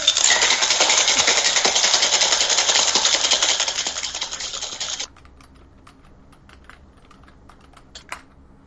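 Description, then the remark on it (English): Ice rattles hard and fast inside a cocktail shaker holding lime juice and other cocktail ingredients for about five seconds, a loud, dense clattering, then stops, leaving quiet with a few faint clicks and taps. “Right, it all goes into a shaker with ice.”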